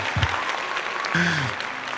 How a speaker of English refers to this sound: We got the claps. Nice.